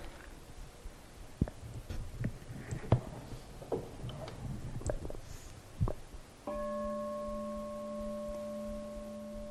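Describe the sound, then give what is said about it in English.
A few scattered taps and knocks, then a single bell is struck and rings out with a steady, sustained tone that holds until the end without fading much. No one speaks. “The sound of that bell is the result of sound waves.”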